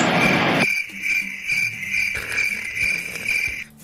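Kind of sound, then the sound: insect, crickets chirping sound effect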